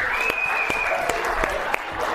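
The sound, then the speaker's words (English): An audience applauds steadily, a dense wash of clapping with a few sharper individual claps standing out, and a faint whistle-like tone sliding through the noise. “Oh man, big round of applause.”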